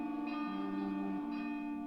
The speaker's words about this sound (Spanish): las campanas de la iglesia de Soria doblaban a lo lejos con un tañido monótono y triste.